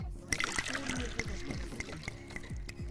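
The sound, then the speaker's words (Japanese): Liquid pours steadily into a glass, close up, with a series of sharp clinks and cracks like ice shifting as the drink fills it. “何飲んでんだろうねこれ洋さんの想像的にはどんなもんだと思いますなんだろうねでもなんか氷入ってる”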